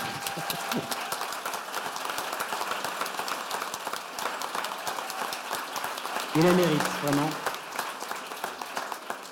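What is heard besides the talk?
audience applause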